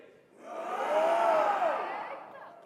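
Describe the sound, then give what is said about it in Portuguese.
A big group of men lets out one loud, sustained roar together on a count of three, practising a roar with their voices imitating male lions. The sound swells quickly, holds for about two seconds, then trails off. “Vamos só praticar nosso rugido aí, tá bem?”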